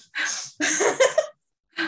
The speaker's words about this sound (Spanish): Así se respira,